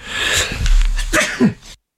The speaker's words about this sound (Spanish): Voy a estornudar, voy a estornudar.